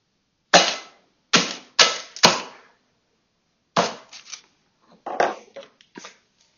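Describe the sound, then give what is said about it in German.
A hammer smashes a hollow chocolate Easter bunny: four loud, sharp cracking blows in quick succession, a short pause, then a looser run of lighter crunching and crackling hits. No one speaks. “Und deshalb werde ich jetzt mit einem Hammer diesen Schokohasen mit dem Hammer zerschlagen.”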